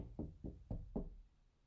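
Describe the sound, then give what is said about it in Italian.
Four firm, evenly spaced knocks on a wooden door by the Befana on 6 January, the feast of the Befana, fairly loud, followed by a short quiet pause with no voices. “Viene e bussa alla tua porta sai tu dirmi che ti porta?”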